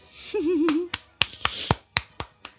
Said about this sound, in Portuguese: palmas.